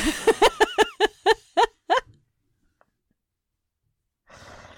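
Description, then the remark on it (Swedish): A drawn-out yawn that comes out in a quick series of voiced, pulsing bursts for about two seconds, then trails into silence before a soft rush of breath noise. “Vilken gäsp det bara av här.”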